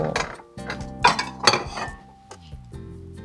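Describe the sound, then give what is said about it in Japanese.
Several moderately loud clinks and knocks of a plate as boiled, washed and drained soba noodles are set onto it, with short ringing tones between the taps and no talking. “さあこれをお皿に持っていきましょう”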